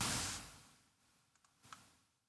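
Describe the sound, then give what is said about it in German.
A few quick, soft computer mouse clicks, fairly quiet, following a short burst of rushing noise at the start. “er klickt mit der Maus.”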